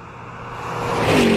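A red sports car's engine revs as the vehicle approaches from a distance, growing steadily louder over a second and a half with a rising whine near the end. No one speaks.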